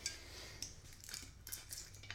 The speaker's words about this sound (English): Um, sorry guys, gotta make a drink real quick, real, real, real quick.